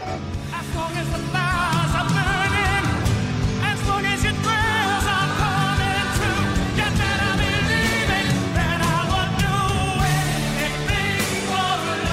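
A 1993 rock ballad plays loud and steady throughout, with a full band and a soaring, wavering lead vocal over sustained chords and drums. No one talks over it.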